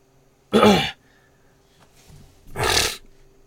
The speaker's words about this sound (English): Had to go blow my nose.